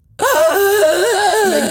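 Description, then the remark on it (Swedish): A person vocally imitates the sudden gasp of a sleeper whose snoring stopped for up to a minute and a half: after a brief silence, a loud, strained groaning intake bursts out and wavers in pitch for over a second and a half. “Och sen så liksom kom det till och så blev det liksom bara helt tyst mitt i snarket.”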